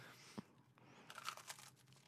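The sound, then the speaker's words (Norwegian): A crisp, big bite into a crunchy corn cake, followed by a second of dry crackling crunches as it breaks apart; quiet overall, with no talking. “Stor bit her, altså.”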